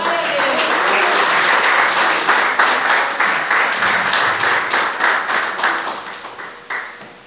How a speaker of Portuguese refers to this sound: oportunidade, as palmas louvam o Senhor.